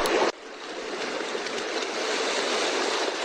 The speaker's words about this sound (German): Und hier haben wir ein anderes Meeresrauschen. Finde ich persönlich schöner.